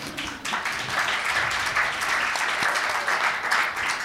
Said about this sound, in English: And uh, she's won the, she has been awarded the Order of Canada, which is not too shabby. You can applaud for that one.